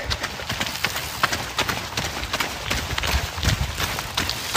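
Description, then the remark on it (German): Steady footsteps of people walking through Wuppertal, Germany, on a hard surface, each step a sharp tap in an even rhythm, over a constant outdoor background hiss. “Ich lasse euch noch ein paar Schritte zuhören und dann melden wir uns später nochmal.”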